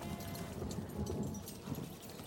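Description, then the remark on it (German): Traders lead goats and calves along a street, their hooves clopping in a steady, dense clatter on hard ground, continuous, with no voices. “Handelsleute ziehen ihre Ziegen und Kälber durch die Straßen”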